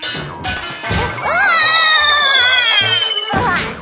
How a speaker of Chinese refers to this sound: 中央空调的扇叶和小鸡墩墩一起掉了下来。